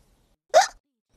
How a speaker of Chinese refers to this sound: 如果是你打嗝，你就不会笑了。